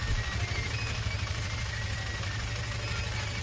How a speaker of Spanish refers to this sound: Escuchamos el sonido de sus motos.